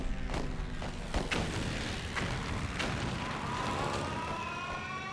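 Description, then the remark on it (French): Air raid sirens wail near a Bavarian factory in Germany in 1942, announcing an imminent air raid, with a slow rising tone that swells toward the end, over a dense rumble punctuated by sharp, heavy booms. No one speaks. “les sirènes se mettent à hurler près de l'usine bavaroise des frères Dassler, annonçant un raid aérien imminent”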